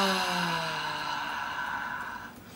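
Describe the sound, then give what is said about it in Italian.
A single long, deep exhale voiced as a drawn-out sigh, steady, its pitch sliding gently downward before trailing off after a couple of seconds; one of three deep breaths taken while letting go. “Faccio tre respiri profondi lasciando andare.”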